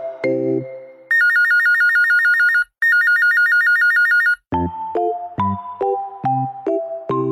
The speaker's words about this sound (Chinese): 电话响，铃铃铃，拿起电话听一听。